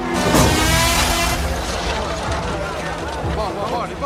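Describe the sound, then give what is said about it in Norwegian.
Formula 1 race cars, Ayrton Senna's among them, scream past during a qualifying session, a loud continuous engine roar with rising and falling whines as they sweep by, and indistinct voices blended into the noise. “Like etterpå suser Senna inn i mål med den beste tida.”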